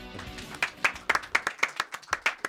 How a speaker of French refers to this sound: on t'applaudit chaton.